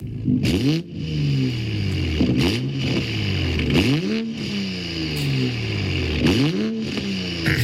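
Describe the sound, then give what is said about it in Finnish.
A car engine revs up and settles again and again, its pitch climbing and falling in about five or six loud bursts over a steady idle, with no voices. “Mutta me arvuteltiin, tätä autoa, että mikä tämä on.”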